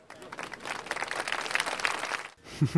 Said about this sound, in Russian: Я думаю, что здесь должны прозвучать какие-то фрагменты даже. Или аплодисменты.